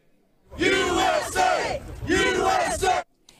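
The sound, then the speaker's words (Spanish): A group of activists from the Take Our Border Back convoy, just arrived in Texas, shouts a slogan together in unison, protesting President Biden's migration policies: two loud rhythmic chanted phrases with a brief pause between them. “Escucha estas consignas que grita en coro este grupo de activistas que acaba de llegar a Texas.”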